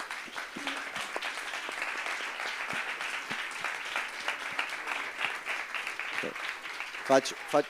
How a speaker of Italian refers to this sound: facciamo che questo applauso era rivolto a voi stessi per essere qui, quindi grazie